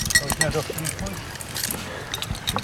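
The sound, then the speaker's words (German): Keys jingle and clink on a ring in short bright bursts while a man's voice talks over them. “Ich habe einen Schlüsselbund.”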